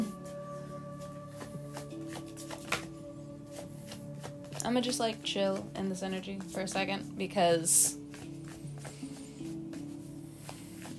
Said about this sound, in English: Like, I've been shuffling this whole time, and it's just two cards that have come out.